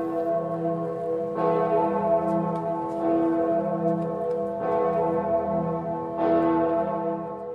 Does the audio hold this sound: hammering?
no